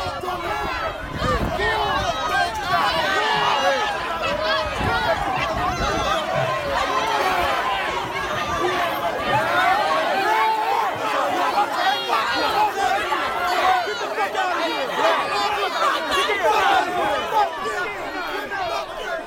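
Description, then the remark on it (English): A tumultuous skirmish in a protest crowd, recorded on a cell phone on May 30, the first day of protests in Charleston, South Carolina: many voices shouting and clamoring at once, loud, with sharp bursts of commotion and thuds in a continuous chaotic din. “what you were hearing was a skirmish between”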